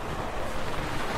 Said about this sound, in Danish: For her lige ved siden af Kallinge, en by på 5.000 indbyggere, der ligger en militær flyvestation. Det man kan høre her i baggrunden, det er altså et, en helikopter, der lige flyver forbi